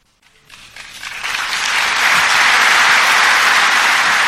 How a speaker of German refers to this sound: Hoeneß bekommt schon während seiner Rede viel Applaus von den Mitgliedern.